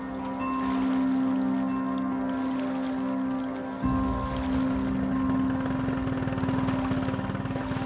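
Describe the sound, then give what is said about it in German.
A slender boat's engine drones steadily on the Ganges while river water rushes and splashes against the hull, a continuous churning wash with a brief shift in the motor's tone midway. “Wir sind gestern auf dem Ganges Richtung Westen nach Bihar geschippert und haben auf dem schlanken Boot im strömenden Regen übernachtet.”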